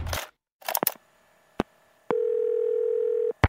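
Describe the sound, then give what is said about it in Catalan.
A loud, steady telephone dial tone hums for about a second, bracketed by sharp clicks, with some brief handset rustling and clatter just before it. “Així que la següent trucada eh, bueno, va, va ser una mica tensa.”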